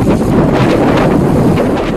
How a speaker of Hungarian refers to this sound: Az év eddigi legnagyobb vihara vonul át a brit szigetek felett.